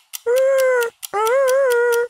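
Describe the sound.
A person imitates a wolf with two sustained, high, wavering howls, the second longer and slightly rising, fairly loud with no talking.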